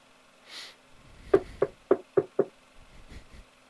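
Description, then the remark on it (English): Five quick knocks rap on a door downstairs in a fast, even series, somewhat muffled, preceded by a soft breathy rustle and no talking. “From downstairs, there is a knock at the door.”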